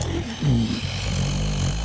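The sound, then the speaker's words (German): A sleeping man snores, a low, rumbling drone lasting about two seconds, raspy and throaty with a brief rise in loudness partway through and no talking over it. “Du hörst doch selber schon Schnarchen.”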